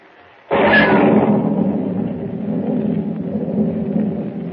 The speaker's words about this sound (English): Lightning cleaves the black sky and thunder crashes as Pug, unable to swim, drops like a plummet into the raging storm swept sea.